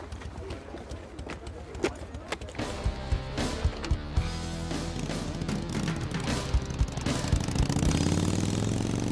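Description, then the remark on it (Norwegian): A motorcycle engine starts and revs up, its pitch climbing toward the end, mixed with loud rhythmic music and steady percussive knocks throughout. “Men det er hver gang han eh, kjører i gang motorsykkel, så må den musikken komme.”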